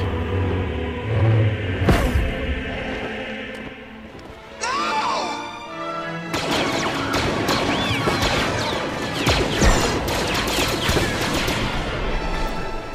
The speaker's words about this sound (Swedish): stormtrupperna skjuter så jävligt dåligt. Skjuter så illa.